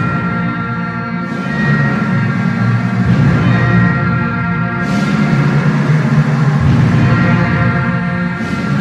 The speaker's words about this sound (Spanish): el timbre y los timbales que anuncian que Jesús Nazareno de la Merced ha iniciado su cortejo procesional.